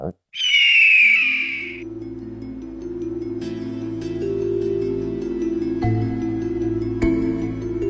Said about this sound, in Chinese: 这种鸟叫海东青，是世界上飞得最高、最快的鸟，品种万里挑一，有“万鹰之神”的称号。